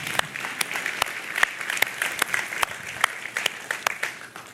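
An audience breaks into applause, a dense wash of many hands clapping with sharper individual claps standing out, steady and fairly loud throughout with no one speaking.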